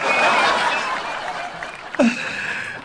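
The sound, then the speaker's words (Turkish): A burst of applause and laughter sound effects, loud at first and gradually thinning out, with a brief chuckle near the end over fading clapping. “Alkış sesleri, gülme sesleri arada sırada bağırıyorum ya.”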